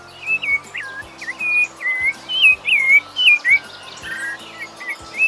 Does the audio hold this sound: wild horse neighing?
no